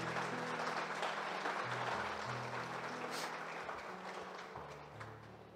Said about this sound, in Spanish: Un aplauso también.